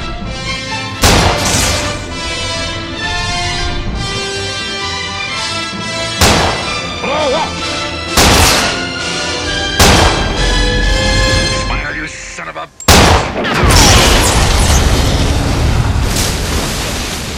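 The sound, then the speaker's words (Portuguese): A sharp rifle shot, fired by policeman Broad from the mast of a nearly sunken boat at a shark carrying a gas tank in its mouth, and a heavy booming explosion, over loud orchestral music, amid several other loud cracking impacts, with a big blast near the end. “Agora só está ainda vivo o policial Broad, que, encostado no mastro do barco, já quase naufragado, aponta seu rifle contra o tubarão que vem em sua direção com um tubo de gás na boca.”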